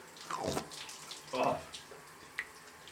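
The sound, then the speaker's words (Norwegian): Shower water runs and splashes over a person standing in the shower, with a few louder gushing bursts over a steady hiss as something moves under the stream. “nå er jeg i dusjen.”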